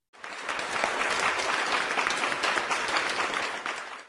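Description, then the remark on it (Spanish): A burst of steady clapping from a small crowd, applauding three TV series theme composers, dense and sustained for a few seconds before tapering off at the end. “Así que brindémosle un aplauso a estos tres grandes compositores.”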